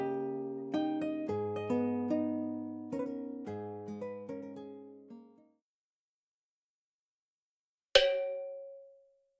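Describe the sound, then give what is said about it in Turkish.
A Swiss ebony-wood pendulum wall clock with twin pendulums and heavy chains chimes a short melody of ringing metallic notes, falls silent, then sounds one loud, resonant gong strike announcing midnight that slowly fades away. No voices. “Duvardaki çifte pandüllü, ağır zincirli, abanoz ağacından yapılmış İsviçre saatinin gongu gece yarısının geldiğini haber verdi.”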